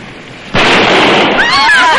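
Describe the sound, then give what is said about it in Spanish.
A single loud gunshot, fired at a tyre, cracks out suddenly after a quiet moment, followed by a sustained noisy rush and rising, wavering high-pitched whines as it fades. “Tienes que darle a ese neumático.”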